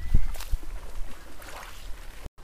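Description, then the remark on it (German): Soft, irregular lapping of small waves on the shore of a small lake, gentle, with low rumbling wind noise and occasional splashy swells. No one speaks. “Und jetzt könnt ihr nochmal drei Sekunden lang äh, ein paar Mini-Wellen hören und den kleinen See.”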